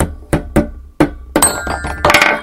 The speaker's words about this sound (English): Uh, and again, the tool part, why is he using the hammer here? It's to hit the balls so that they will what Slide down the xylophone